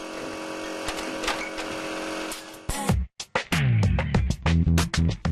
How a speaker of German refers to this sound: Destillateure müssen damit rechnen, auch in lauter Umgebung arbeiten zu müssen. Hier dröhnt gerade ein Kompressor. In diesem Fall ist der Lärm nicht durchgängig.